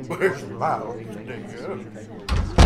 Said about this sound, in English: Oh my oh, god, he's well. trying to open the judge's chambers doors.